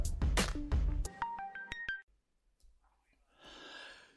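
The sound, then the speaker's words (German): Telephone call tones of an outgoing call: a run of short electronic beeps stepping up and down in pitch after a loud opening burst, followed by a brief pause and a faint, hissy line noise. “In dieser kleinen Spezialausgabe wollen wir auch noch einen speziellen Telefongast anrufen.”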